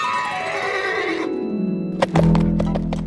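Sinterklaas's horse Ozosnel gives a loud whinny with a long descending neigh, followed by a couple of heavy hoof thuds as it lands after a huge leap onto the escape route, clear with no talking.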